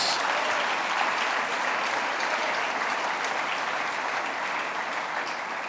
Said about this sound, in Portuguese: Pode aplaudir porque é verdade.